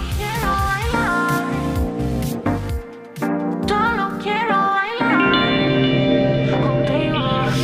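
A pop song plays loud and close, with a sung vocal line gliding over layered synths and a steady driving beat that continues throughout.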